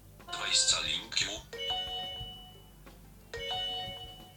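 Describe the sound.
A phone plays a repeating phone-finder alert chime, triggered by pressing a button twice on a Baseus tracker device: a bright, noisy burst followed by two clear multi-tone ding patterns, moderately loud, with a faint background voice.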